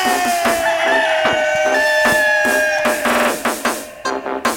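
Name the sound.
rooster crowing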